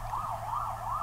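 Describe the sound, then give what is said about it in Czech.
An ambulance siren wails in steady rising and falling sweeps as the ambulance drives past, moderately loud, over a low traffic rumble with no one speaking. “Slyšíte tu sanitku, která jede kolem nás?”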